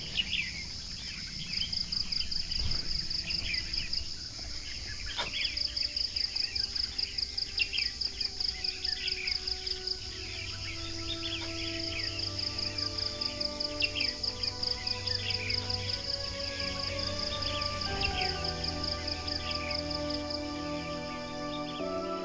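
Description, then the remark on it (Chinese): Bird song full of quick, bright, twanging calls that bounce like a metal spring, repeating over a steady high insect drone, with a low hum underneath and no voices. “哦，有鸟哎，出来了！我这这个鸟太牛了，像弹簧一样。”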